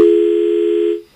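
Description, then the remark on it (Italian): A steady, buzzy telephone dial tone after a dropped call, one unbroken mid-pitched hum lasting about a second before it cuts off abruptly. No voices. “È caduta.”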